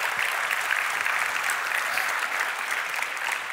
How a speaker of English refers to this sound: Get him a round of applause. Thank you.